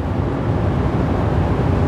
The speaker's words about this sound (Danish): Men det hele, det starter altså lige her, i bussen fra Aarhus mod Lystrup. Og vi er vist ved at være fremme.